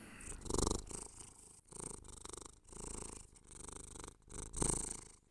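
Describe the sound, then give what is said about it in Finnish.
An eight-year-old Siberian cat purrs loudly, a steady rumbling that swells and eases in about six breathing cycles, with no other sounds or voices. “ja päätin sitten toteuttaa tämän toiveen ja tällä viikolla annan äänen meidän kissalle.”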